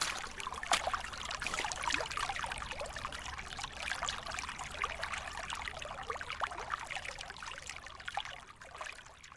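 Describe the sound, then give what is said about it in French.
Shallow snowmelt water trickles and babbles over stones and earth in a steady, continuous flow down a mountain path turned into a small temporary stream, moderately loud, with bright splashing textures and no voices. “La neige fond tellement vite que certains chemins se transforment en petits ruisseaux éphémères dans lesquels nous devons avancer l'os creuse un passage dans la terre et entre les cailloux.”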